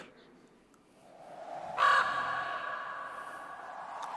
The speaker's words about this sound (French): Corbeau de la solitude. j'espère qu'on aura encore les corbeaux de la solitude.